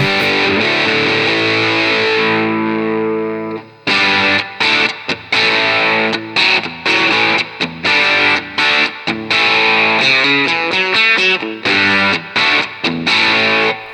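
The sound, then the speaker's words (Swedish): Electric guitar through a fuzz pedal with the gain at about three o'clock (roughly 8 of 10): a thick, buzzing chord rings out for a few seconds, then gives way to loud, choppy strummed chords and short stabs in a rhythmic pattern, with no talking. “Alltså, just, just det här, det här är ju liksom det jag älskar med bra fussar. Det är just det att klinar upp så bra.”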